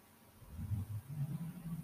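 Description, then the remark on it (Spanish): A faint, low engine rumble from a car somewhere in the distance, rising and holding steady as it passes, with no voices nearby. “Hay un carro a lo lejos.”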